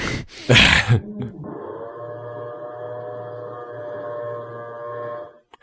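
A short, loud clattering burst, then a power drill boring into a strong ceiling in the house to mount a lamp, with a steady, humming whine that holds an even pitch for about four seconds before cutting off.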